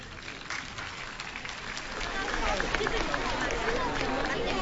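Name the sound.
audience applause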